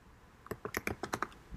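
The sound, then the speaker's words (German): A quick burst of typing on a computer keyboard to search on Google, about eight sharp clicky keystrokes in an uneven rhythm, fairly quiet, with no voices. “ich google mal eben.”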